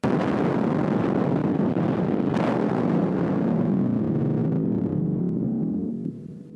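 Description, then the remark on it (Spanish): A massive nuclear bomb explosion sound effect: a loud, sustained low roar and rumble that churns steadily for several seconds before trailing off at the end, with no voices. “un gramo de materia en contacto con un gramo de antimateria producirían una explosión equivalente a la de una bomba nuclear.”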